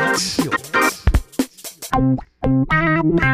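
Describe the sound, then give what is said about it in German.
A short, punchy intro jingle for the segment 'Bin ich der Idiot?', made of heavily effected, distorted synth or vocal tones in choppy bursts, with bright buzzing harmonics and a brief pause before a final loud stretch. “Und jetzt haben wir dafür, damit ihr es richtig geil reinhaut, haben wir eine, ähm, ein Intro gemacht. Wir hören mal kurz rein.”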